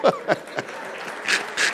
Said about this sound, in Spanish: ¡Aleluya! Oh, dale el aplauso a Dios.